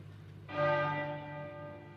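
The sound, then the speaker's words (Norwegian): A single toll of the heavy bell of Westminster Abbey, which tolls once a minute, on 6 September 1997, rings out after a moment of low rumble, its deep, layered tones humming and slowly fading without any voices. “Og så denne tunge, tunge klokka fra Westminster Abbey som slår én gang i minuttet.”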